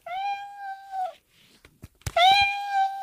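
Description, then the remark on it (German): A children's sound book plays a cat meow when the cat picture is pressed: two long, drawn-out electronic meows with a steady, buzzy tone, separated by a few sharp clicks and handling knocks, loud. “Ähm, wer möchte dann mal gerne auf die Katze drücken?”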